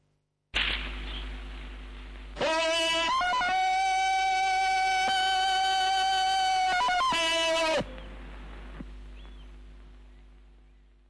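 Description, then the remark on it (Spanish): The Tarzan yell, a loud, ululating jungle-man cry from classic films, rings out for about five seconds, a sustained warbling cry with sharp yodel-like breaks at its start and end, over a low steady hum. “Pues ese es el sonido de Tarzán que todos reconocemos y que, bueno, se hizo eh, con, sonidos de varios animales, creo.”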